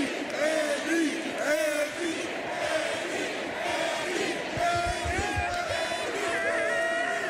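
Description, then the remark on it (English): A large crowd chants and yells together in unison at a Chiefs victory rally, a chant started by Patrick; a loud, dense wall of voices that holds steady for several seconds with rhythmic swells. “That would be Patrick starting the cheer, starting the chant.”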